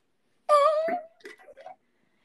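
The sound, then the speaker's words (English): A kitten gives a high, wavering mew, followed by a few shorter, softer squeaky calls. The sounds stand alone with no talking. “The kittens.”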